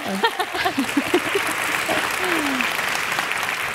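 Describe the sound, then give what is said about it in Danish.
An audience breaks into sustained applause marking ten years of a comic strip, a dense steady patter of clapping with a few brief voices cheering over it at the start. “Bifald.”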